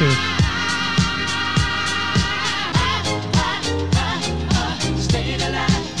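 Upbeat disco music plays loudly and continuously, with a steady four-on-the-floor kick drum pulse, bright harmonic layers and sustained backing vocals. It is the soundtrack of the trailer for the 1977 film Saturday Night Fever, starring John Travolta. No speech is heard.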